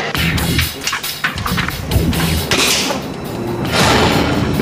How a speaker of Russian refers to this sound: Из арбалетов я произведу с дистанции 13 и 20 метров выстрелы карбоновыми арбалетными стрелами, подвешенную вертикально, непотрошенную тушу свиньи, которая по своим свойствам и строению внутренних органов наиболее схожа с человеком.